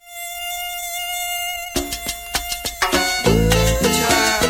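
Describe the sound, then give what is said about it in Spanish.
A thin, high-pitched mosquito whine hums steadily for a couple of seconds, then gives way to a series of sharp percussive hits and bright musical stabs that grow louder. “Una de las formas de prevenir la malaria es usar mosquiteros impregnados con insecticidas porque matan a los zancudos que se posan sobre ellos.”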